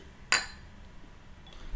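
A single bright clink of glasses touching in a toast before tasting beer, sharp, ringing briefly before fading into faint background noise.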